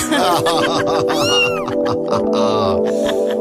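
A single drawn-out cat meow, rising then falling in pitch, rings out clearly over loud background music with a steady thumping beat.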